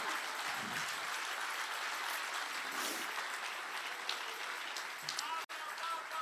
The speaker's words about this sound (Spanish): Si ese aplauso es para el Señor.